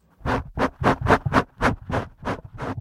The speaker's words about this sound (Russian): Сейчас я пошуршу в микрофон. Как это будет, потом посмотрим.